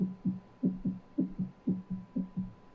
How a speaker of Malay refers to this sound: Jantung berdegup kencang.